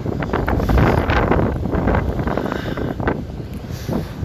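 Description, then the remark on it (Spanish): Strong wind roars and buffets against the microphone on a seaside walk, a loud, continuous rumbling rush with uneven gusts throughout and no voices. “No estoy tan interesado en caminar porque el viento está al lado.”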